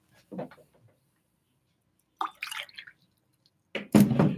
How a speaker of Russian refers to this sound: Поэтому, сейчас воды попью.